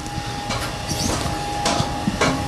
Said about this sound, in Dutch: Nou, dit is het systeem. Hier zit een eh, grote pomp. Die zuigt het water uit de verschillende baden. Dus uit het buitenbad en uit het binnenbad. Dat gaat hier door het systeem heen. Gaat in een zandfilter.